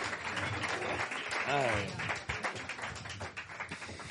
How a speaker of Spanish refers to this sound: Vale, pues un aplauso muy fuerte para la segunda parte de la entrevista